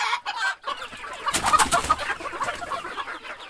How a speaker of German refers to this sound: Pünktlich um 10 Uhr hat sich die kleine Pforte zum Hühnerstall geöffnet. Jetzt picken und scharren die Hennen und Hähne draußen im Sand überwölbt von einer engmaschigen Voliere, die sie vor Raubvögeln schützt.